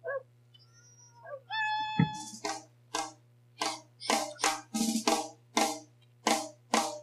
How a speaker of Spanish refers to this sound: Es despertador. Eso sí es despertador.